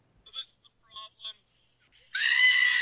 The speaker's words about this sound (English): and all I could picture was a screaming goat like because the tires are spinning on this pickup. Just I'm like, ah! so I the second video is of me dubbing in the screaming goat over his tire burnout.